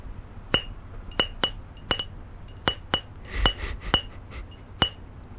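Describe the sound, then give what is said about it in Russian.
A drinking glass is tapped to play a song, a simple rhythmic tune of around a dozen bright clinking strikes with ringing tones, clear, with a faint soft rustle midway and no talking. “в их честь я исполню песню на национальном а, английском инструменте это стакан.”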